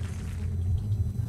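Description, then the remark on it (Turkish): A deep, steady rumble of military jet aircraft passing overhead, heavy low-end roar filling the short stretch without pauses or voices. “O şu anda tepemizde uçan e, jetlerimizin sesi sevgili arkadaşlar.”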